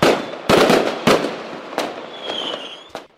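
A rapid series of loud, sharp fireworks bangs, about five blasts in three seconds, with crackling and a faint whistling tone between them.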